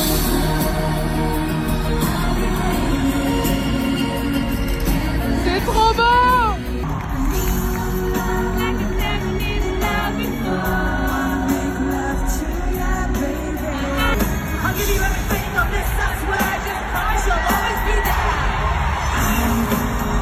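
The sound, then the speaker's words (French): A loud live recording of a band's concert in London with music and a dense crowd, one fan's voice screaming and singing along over the band throughout. “Oui, oui, oui, euh, c'est moi, la voix de la demeurée que vous entendez crier et chanter.”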